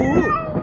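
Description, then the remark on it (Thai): A single drawn-out cat meow at the door, fairly loud, its pitch bending and falling over less than a second with no voices around it. “นั่นเป็นเสียงของแมว”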